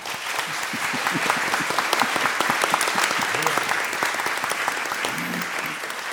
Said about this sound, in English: So, Martin on the end, a round of applause for Martin.